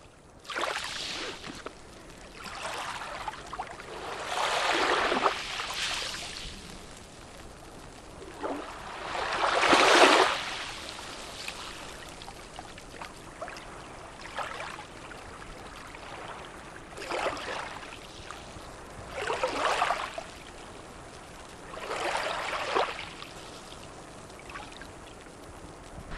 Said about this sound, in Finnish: aallot tulee rantaa, vähän on kuplia vedessä ja tulee tämmöiselle matalalle hiekkarannalle. Ja vesi tulee ylös ja vetäytyy alas